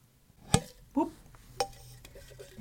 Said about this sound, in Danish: Så øh, jeg øh, har fundet den gode gamle emnedåse frem. Ja. Jeg ryster den lidt.